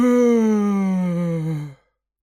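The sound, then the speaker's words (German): A loud, drawn-out yawn voiced by a girl as she enters a dining hall in the morning, a single long tone sliding downward in pitch for almost two seconds before cutting off into silence. “Und als sie am nächsten Morgen den Speisesaal betrat, gähnte sie lauthals.”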